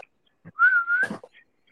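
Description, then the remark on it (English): A single sustained human whistle given as a signal, clear and fairly loud, holding one steady note for about half a second with a slight upward lift, then a few soft rustling noises and no talking. “So he looks up and whistles.”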